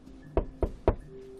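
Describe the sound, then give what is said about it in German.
Three firm knocks in an even rhythm on the door of a forensics department, clear, with a faint background hum and no voices. “Alles klar, dann klopfen wir noch mal kurz bei der Forensik.”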